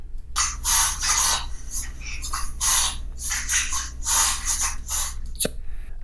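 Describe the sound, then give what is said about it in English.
A dog reverse sneezes, a rapid series of harsh, honking snorts and gasping inhales repeating in an uneven rhythm for several seconds, with no talking. “This is the sound of another dog that is reverse sneezing.”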